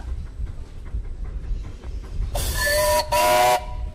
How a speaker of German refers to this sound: Der Klang der Eisenbahn, früher und heute. Nicht nur, dass die Züge lauter waren damals, fauchten, zischten und stampften, auch über das gesamte Bahnnetz zog sich eine akustische Kommunikation von Station zu Station.